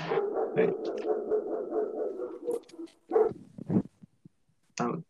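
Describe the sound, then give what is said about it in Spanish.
A frightened dog outside whimpers in a long, drawn-out whine, then lets out a few short, scattered barks with brief pauses between them, clear. “hoy los perritos están asustados pero perro afuera.”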